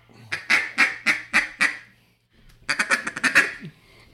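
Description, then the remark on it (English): A duck call blown in soft small-talk chatter: five even quacks, a brief pause, then a quicker run of short, clipped quacks, clear with no talking. “The small talk is my favorite.”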